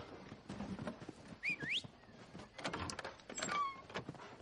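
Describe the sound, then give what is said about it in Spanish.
A woman opens a storeroom door, which creaks with two high squealing hinge sweeps, amid scraping and low rattling knocks; no voices. “Una mujer abre otra puerta del almacén.”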